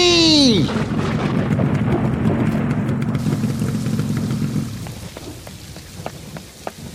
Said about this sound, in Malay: Aduh, lebat lebatnya hujan ni. Apa aku nak buat dengan makanan ni? Hujan ni lebat sangat pula. Tak berani aku nak redah.